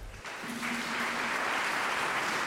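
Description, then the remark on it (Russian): A crowd bursts into applause after a medley of Irish songs, many hands clapping in a dense, continuous patter that swells quickly and holds steady at a loud level, with no voices standing out. “Однако первые теноры контральта сумели завоевать симпатию публики – Кэтлин сыграла попоре из ирландских песен и заслужила аплодисменты.”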